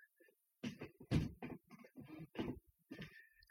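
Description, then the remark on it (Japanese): A chair creaks and groans several times in quick, uneven bursts as someone sits back down in it, with faint rustling and no talking. “この椅子もギシギシうるさいのがれなんか気になりましたね。”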